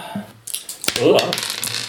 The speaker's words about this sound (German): Moment, da ist ein Würfel entsprungen.